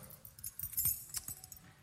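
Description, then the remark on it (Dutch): A bunch of keys jangles in a short burst of bright metallic clinks and rattles, with no one speaking. “Over sleutels gesproken.”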